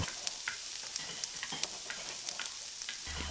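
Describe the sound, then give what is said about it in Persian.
Chopped onions, just added to the browned food over lowered heat, sizzle steadily in a hot pot while a utensil stirs them until softened, scraping and clinking at irregular intervals over the constant frying hiss. No one speaks. “وقتی به این مرحله میرسیم پیازای خورد شده رو به غذا اضافه میکنیم زودتر نمیریزیم که بسوزه همش میزنیم سب میکنیم تا پیاز مقداری پخته بشه یا اصطلاحا سبک بشه”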